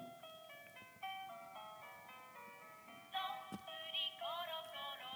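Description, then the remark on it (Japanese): A tinny electronic nursery-rhyme tune plays from a switched-on children's book with built-in songs: bright, beepy notes in a steady, simple melody, fairly loud, with no voices. “知り合いの人がくれた本があって本本本だけどあの歌が入ってるんです例えばねいきますよえっとねこうやってスイッチオンしてこれです聞こえますかねこうやって音楽だけのもあれば”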